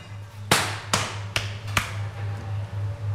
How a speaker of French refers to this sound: Et sinon, simplement, le clap des mains, les mains claquées sur le corps